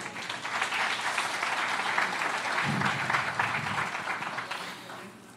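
A church audience applauds Jesus steadily for several seconds, a dense wash of many hands clapping at once that holds level and then tapers off near the end, with faint voices mixed in.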